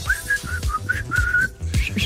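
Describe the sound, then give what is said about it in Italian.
Someone whistles a short melodic tune, a string of clear, steady notes rising and falling with brief breaks between them, fairly loud, with soft low thumps underneath. “perché poi ci sono vari tipi di fischio, come tu sai, cioè fischiettare”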